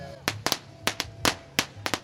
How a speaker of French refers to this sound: Voilà les petits pétards sympas.